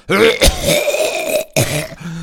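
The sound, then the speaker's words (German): A person imitates a cough, as in a cough-medicine advertisement, with a strained, throaty voice: two sharp bursts with a drawn-out groaning rasp between them, loud. “Oder hast du diesen Husten?”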